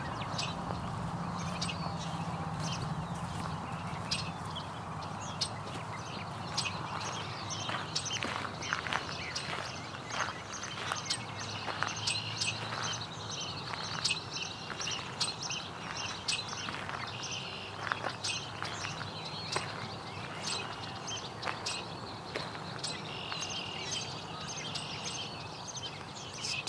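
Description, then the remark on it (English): A Baltimore Oriole sings in bursts of clear, whistled notes over steady outdoor background noise, with scattered soft footstep-like clicks throughout and no voices. “Baltimore Orioles still singing quite a bit.”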